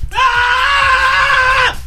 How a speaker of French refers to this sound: C'est que là, vos cris, ils sont enregistrés. C'est ça, répondeur. laissez votre message après le timbre.